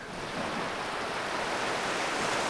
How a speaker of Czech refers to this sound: Stojím pokotníky ve vlnách.